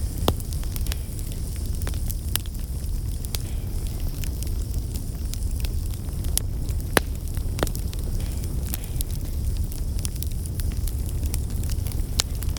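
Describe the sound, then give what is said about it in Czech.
A wood fire crackles inside an old tiled Tyrolean stove, with sparse, irregular, hesitant pops and snaps over a steady low rumble of burning, fairly quiet, no voices. “Dnes se však těm starým tyrolským kamnům nějak nechce do práce. Praskot zní stále ještě nesměle a váhavě.”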